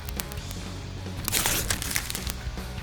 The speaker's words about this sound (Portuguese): Hoje é dia do Pancada Awards e vamos abrir o segundo envelope da noite nessa manhã de sexta.